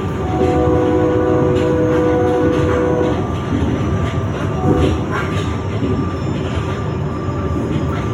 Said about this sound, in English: you'll hear the train moving, you'll hear the stop coming up